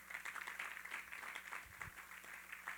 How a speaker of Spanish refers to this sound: Dele un aplauso al Señor por ello.